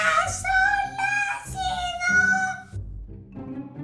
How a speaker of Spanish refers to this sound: Parece que alguien canta con una voz espantosa verdaderamente desagradable. Suena como un chirrido